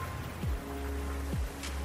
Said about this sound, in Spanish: así de suave como la lluvia de hoy